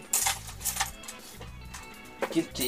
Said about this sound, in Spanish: Sí. me encantan las monedas antiguas, hermano. Me pasáis esa weá y. de varios países, güey.